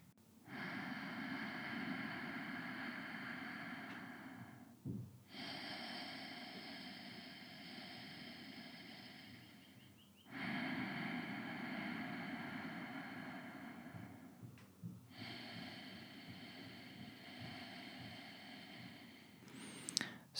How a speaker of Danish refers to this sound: Og du kan følge med her, nu gør jeg det bare lige uden at tælle, men med mit åndedræt, så kan du lige følge med her i nogle få åndedrag. Og vi starter med en indånding.